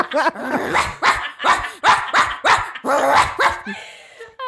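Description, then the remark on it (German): A person imitates a dog barking: a rapid run of about eight loud, harmonic woofs with short gaps, followed by a brief breathy trailing sound. “ich kann, okay, zur Erklärung, ich kann kein einziges Tier nachmachen, wirklich gar nicht. Ähm, deswegen mache ich. Wuff!”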